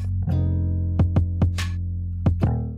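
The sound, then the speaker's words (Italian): A timer alarm goes off with a steady electronic buzz, broken by sharp paired clicks that repeat in uneven bursts. It's loud, with no talking. “il timer mi sta comunicando che ormai siamo arrivati alle conclusioni.”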